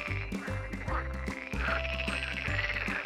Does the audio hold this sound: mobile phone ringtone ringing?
no